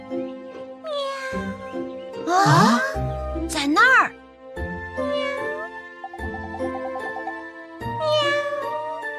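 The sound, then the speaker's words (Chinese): A frightened cat meows several times, its high, wavering cries rising and bending in pitch, with a short spoken exclamation and a steady soft musical backing underneath. “看来猫咪一定是受到了惊吓，贸然接近它的话，又会跑掉的。”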